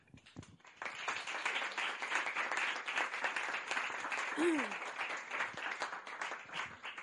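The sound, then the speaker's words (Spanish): A crowd breaks into sustained applause after a brief pause, steady and full for several seconds, with a short cheer or whistle rising briefly midway. “A los que nos están viendo desde casa, como se suele decir en la televisión, un saludo y un aplauso para todos vosotros.”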